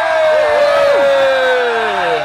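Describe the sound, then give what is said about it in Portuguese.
A loud, sustained shout of voices cheering together to welcome a new member, holding a high note with wavering, sliding pitch for about two seconds before trailing off. “Opa, opa, opa, entrou novo membro, a gente grita.”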